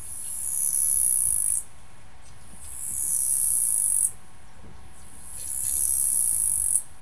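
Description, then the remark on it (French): A cricket chirps at night on an island in three long, shrill trills of about a second and a half each, separated by brief pauses. It is fairly loud over a quiet background, with no talking. “Et concrètement, un grillon qui chante au cœur de la nuit, ça donne ça.”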